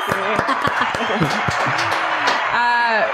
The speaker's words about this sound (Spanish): Un, Un aplauso, para su hermano allá. Gracias, gracias.